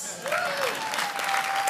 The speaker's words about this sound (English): Give yourselves a mighty clap. Yeah. What's that? Five. Oh, five. Give him another clap.